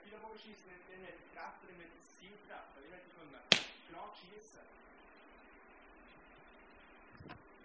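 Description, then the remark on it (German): A single sharp, loud snap of a bow shooting an arrow cuts through a man's steady talking, followed a few seconds later by a fainter click. “Ich habe hier einen Pfeilenbogen mitgenommen”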